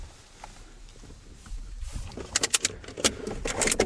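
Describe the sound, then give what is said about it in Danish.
Car keys jangle in a few quick, bright metallic bursts after a quieter opening stretch, clinking and rattling irregularly as they're handled, with a low rumbling background underneath. “Prøv at give mig nøglen. Prøv at åbne øh, handskerummet.”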